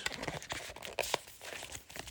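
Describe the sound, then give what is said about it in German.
Crinkling and rustling of paper packaging from a MacBook box, a quick series of crisp tearing and crackling bursts as it's handled and unwrapped, with no voices. “Sieht aus wie Papier. Also noch Papiere zum Mac.”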